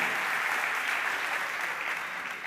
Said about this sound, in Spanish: Un aplauso. Que ya es papá.